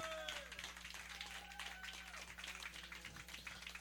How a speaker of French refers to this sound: On applaudit tout le monde.